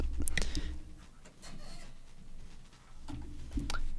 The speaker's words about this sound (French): Allez, ma petite feuille blanche. Euh, mon stylo, je regarde qu'il marche bien. Ouais, c'est cool.